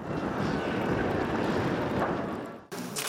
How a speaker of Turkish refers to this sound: Sırbistan Cumhurbaşkanı Ankara'nın sert rüzgarıyla tanıştı. Resmi karşılama törenindeki olumsuz hava koşulları ve Cumhurbaşkanlığı personelinin çalışmaları konuk Cumhurbaşkanının dikkatini çekti